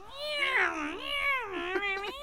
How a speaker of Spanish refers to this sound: Y dice ay Dios mío, esa gatita, si está disfrutando que se calle, pero que me deje dormir en paz.